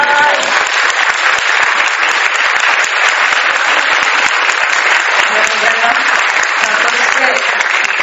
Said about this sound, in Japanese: 皆さん拍手でお迎えください。